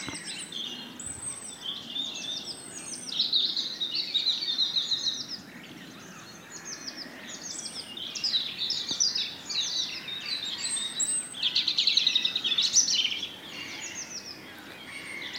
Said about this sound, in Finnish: Nyt taisi punarinta kääntyä kohti mikkiä. Selvästi vaihtelee tämä äänenvoimakkuus. Toki sitten lintu voi myös siirtyä se on sijoitettu aika hyvin se mikrofoni, että siinä on semmoinen iso, iso kuusi ja ilmeisesti se on aika, siinä on just hyvä oksa.